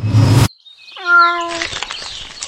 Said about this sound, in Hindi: मैंने तुमसे कितनी बार बोला है अपनी इस बिल्ली को घर के बाहर रखा करो पूरा घर गंदा कर दिया